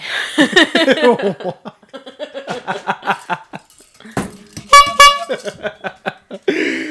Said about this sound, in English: Guys, it is way too fucking late in the day, not even the night, to be honking a horn. Seriously.